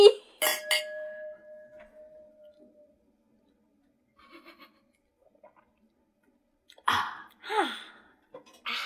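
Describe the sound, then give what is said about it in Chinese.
Wine glasses clink together twice in quick succession in a toast to friendship at a graduation celebration of a Nanjing University master's students' dorm, leaving a clear, high ringing tone that fades slowly over a couple of seconds; after a quiet stretch, brief loud vocal exclamations follow. “噔噔噔，让我们先先为友谊干杯，干杯！”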